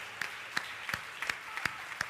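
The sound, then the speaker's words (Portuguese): An audience claps together in a steady, even rhythm as praise to God in a worship service, about six sharp claps in two seconds over a faint background hum, with no talking. “Aplauda Ele, Ele te ama, Ele te ama, Ele te cura, Ele dá graça, Ele é poderoso para fazer infinitamente mais, além do que pedimos, do que pensamos.”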